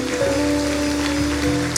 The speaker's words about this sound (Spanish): ¿Qué tal si usted me ayuda a honrar al Señor con un fuerte aplauso? A través de eso le honramos.